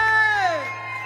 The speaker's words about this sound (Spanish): Una bulla para el cantante que se escuche.